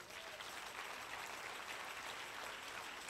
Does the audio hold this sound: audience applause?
yes